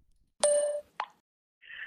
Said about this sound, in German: Die Katze läuft übers Mischpult und erzeugt Töne.